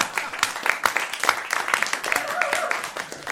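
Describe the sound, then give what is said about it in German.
A short burst of audience applause for Manuel: many hands clapping in a dense, irregular patter at moderate volume, with a faint tonal murmur partway through, no voices standing out. “ein ganz klein, also jetzt nicht zu viel einen kleinen Applaus für Manuel.”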